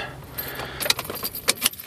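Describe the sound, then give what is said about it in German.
Keys jingle and clink in a quick series of sharp metallic rattles, with a few brighter clicks as a car is locked. No one speaks. “Ach, huch, jetzt habe ich auch ins Auto zugemacht.”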